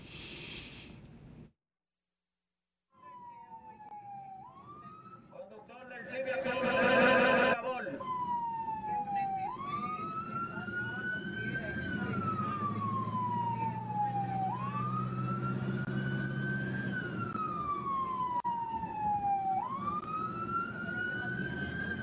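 A loud ambulance siren wails in slow rising and falling sweeps over a low engine rumble, with a brief harsh blast of noise near the start; the ambulance is stuck behind a blue car that will not let it pass.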